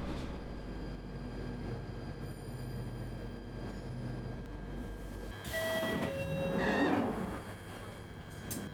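train arriving

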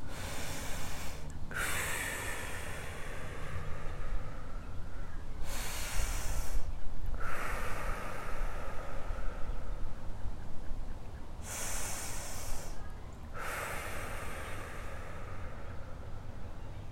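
slow deep breathing

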